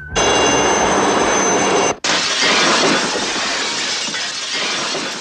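Loud crash of window glass shattering in a film scene as a man hanging from a cable under a gendarmerie Alouette helicopter swings in through the window, a dense burst of breaking glass that cuts off briefly, then a long bright spray of tinkling shards raining down and scattering, with no voices.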